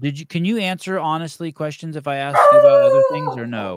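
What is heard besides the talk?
dog barking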